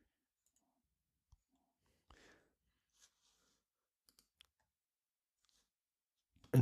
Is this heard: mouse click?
yes